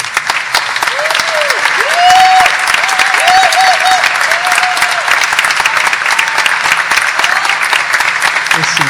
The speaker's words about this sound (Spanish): a la cual le pido un aplauso porque...